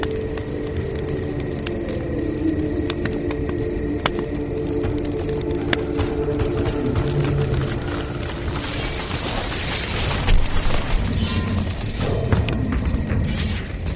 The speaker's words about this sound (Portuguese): antes do sol nascer, antes de, de, vocês terem que acordar, embora vocês não tenham dormido muito de direito ali, barulho de, de coisas quebrando e combate lá fora.